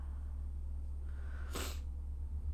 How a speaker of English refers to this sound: Yeah. Sorry for sniffling in your ears. I just realized as I stumbled, I'm like, oh, that's in someone's ear hole.